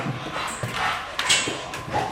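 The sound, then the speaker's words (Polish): An eager police dog straining to get to work alongside its handler, with brief whines, snuffling breaths and scuffling movement in short, irregular bursts over a couple of seconds. “Generalnie drogę właśnie z końca na rozplądowanie to w większości przypadków przewodnicy razem z pieskiem biegną. Dlatego on się tak... Tak, tak, wyrywa do pracy.”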